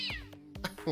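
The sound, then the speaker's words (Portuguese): A street cat named Maria Tereza meows, a couple of quick, rising and falling cries packed into a second, fairly clear and loud with faint background noise. “É a gata da rua.”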